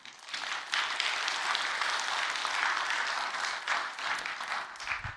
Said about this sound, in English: And I think we should clap for our bereavement team.